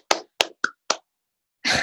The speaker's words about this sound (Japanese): 拍手出ました